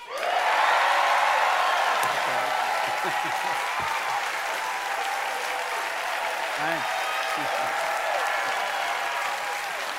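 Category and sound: crowd, audience applause and cheering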